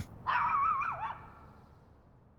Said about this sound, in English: And you know what? He heard a barking.